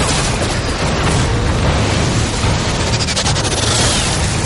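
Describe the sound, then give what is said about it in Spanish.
Dense, continuous barrage of crossfire among trees as people keep running, loud, with rapid crackling rifle shots and bullets striking trees layered over heavy low rumbles from exploding mortar shells. “Se produce un fuego cruzado sin dejar de correr.”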